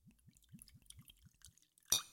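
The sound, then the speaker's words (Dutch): A cloudy drink glugs out of a bottle into a glass in a quick run of rhythmic gurgles, fairly quiet, ending with a sharp glassy clink. “Oké, nou dan gaan we. Oh, het, ruikt, het ruikt wel heel goed. Oeh. Oeh, een glas.”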